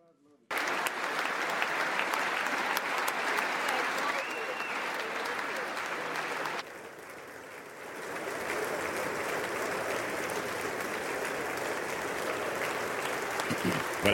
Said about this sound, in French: Le président ukrainien qui s'est euh, ensuite rendu au Congrès et il a été ovationné. Regardez.